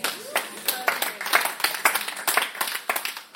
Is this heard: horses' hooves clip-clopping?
no